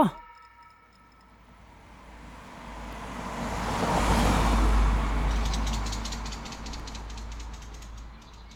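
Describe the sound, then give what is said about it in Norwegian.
A car being parked on a quiet street in Berg, Oslo, Norway, its engine and tyre noise swelling to a peak midway and then easing off to a low, steady idle-like rumble. “Jeg har parkert bilen min i en stille gate på Berg i Oslo.”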